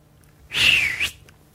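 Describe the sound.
A single human whistle, fairly loud, lasting about half a second and sliding gently downward in pitch, mimicking something going down the toilet.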